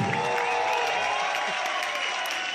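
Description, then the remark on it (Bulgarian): Steady, dense applause from a crowd for newlyweds fills the whole stretch at an even, fairly loud level, with a faint murmur of voices mixed underneath. “Пичове, може ли малко аплодисменти за младоженците?”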